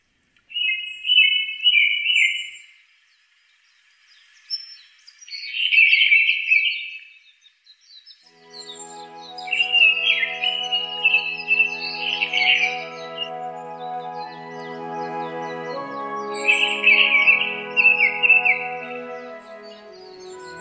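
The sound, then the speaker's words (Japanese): A Japanese thrush on Mount Takao, its song carrying across the valleys and forest, sings clear, fluting phrases in separated bursts, bright. Partway through, soft sustained musical tones swell in beneath the birdsong. “高尾山の谷と森を越えて聞こえてくる黒つぐみのさえずり。”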